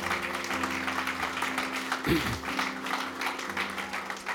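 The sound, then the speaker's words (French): An audience applauds Jesus at a church service: steady applause for several seconds, a dense crackle of many hands clapping at an even loudness, with a low sustained hum underneath and no one speaking. “Est-ce qu'on peut applaudir Jésus parce qu'il est tellement bon?”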